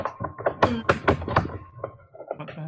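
A knife rapidly slices something on a cutting board, a burst of sharp, uneven thuds, with a faint steady hum in the background.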